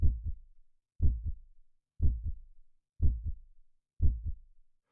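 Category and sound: human body sound, heartbeat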